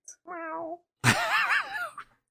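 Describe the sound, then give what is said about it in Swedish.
A person imitates a cat with two drawn-out meows: a softer, wavering one, then a louder, strained, yowling one with a rising-and-falling pitch, with no other talk. “Innerst inne mjauar jag alltid.”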